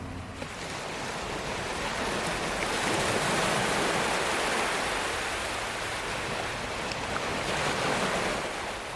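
Ocean waves wash steadily onto a beach, a broad continuous rushing hiss that swells gently and recedes, with no voices present.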